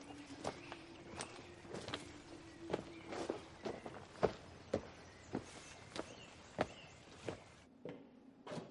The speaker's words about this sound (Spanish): Camina por un estrecho pasadizo con muchas ventanas a los lados.